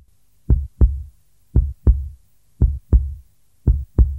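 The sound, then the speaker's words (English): A slow, steady heartbeat thumps in deep lub-dub pairs, four beats about a second apart, with nothing else audible between them; it is the heart of the story character Lemeetri thumping louder as a windmill carries him high above a river. “looked far below as Fajetta disappeared and his heart thumped louder.”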